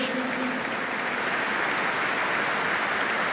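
Sustained audience applause for João Rodrigo Figueiredo, a dense steady wash of many hands clapping at an even, loud level throughout, with a faint tonal murmur briefly underneath at the start.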